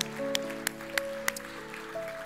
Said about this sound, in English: So if you receive that blessing from the Lord, give the Lord a great hand clap of praise. Would you do that? Amen.